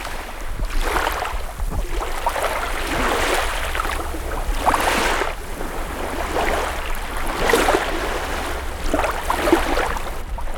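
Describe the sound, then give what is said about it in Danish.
Sea waves wash onto a sandy beach on Bornholm in bright sunshine, broad hissing surges swelling and receding roughly every two to three seconds over a steady low rumble, with no voices. “Prøv at stikke hovedet helt ned i en bølge.”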